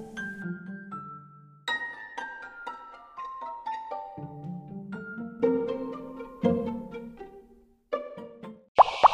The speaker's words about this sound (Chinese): 他到了井边，弯腰去喝水，可是石头实在是太沉重了，压得大野狼直接掉进了井里，淹死了。